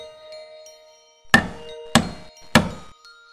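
Three loud, dull knocks on the door of a second-floor master bedroom in a house, evenly spaced about half a second apart, each a heavy thud with a short ring-off, over a faint steady background hum.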